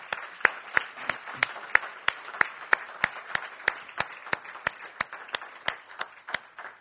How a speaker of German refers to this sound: Ähm, und zwar erstmal möchte ich unserem Lobpreisteam herzlich Danke sagen für den tollen Dienst, den sie tun. Ähm, ich denke, wir dürfen denen mal einen kräftigen Applaus geben.